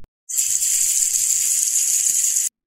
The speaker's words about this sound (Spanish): Visualicen agua corriendo a través de un tubo.